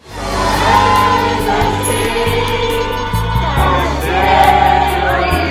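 A large crowd sings together, many voices blending into one loud, sustained melody with long held notes that step between pitches, continuing steadily for several seconds with no speech.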